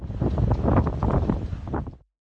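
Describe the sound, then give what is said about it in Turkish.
Strong storm wind, blowing at 90 km per hour with heavy rain in İzmir, roars and buffets a microphone in a dense, continuous rush with low rumbling gusts, loud for about two seconds before cutting off abruptly. “Saatte 90 kilometre hızla esen rüzgar ve kuvvetli sağanakla İzmir'de vapur seferleri de iptal edildi.”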